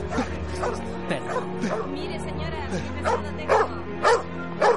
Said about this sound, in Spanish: Hay un perro atado a una carreta.